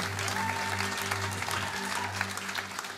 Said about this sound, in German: Lasst uns Gott noch einen riesen Applaus geben.